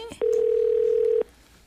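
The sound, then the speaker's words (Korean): A single steady electronic phone tone sounds for about one second, then cuts off into quiet: the ringback tone of a mobile phone call to a friend who does not answer, placed from a highway rest area. It is clear and loud, with no voices. “친구는 전화를 받지 않고”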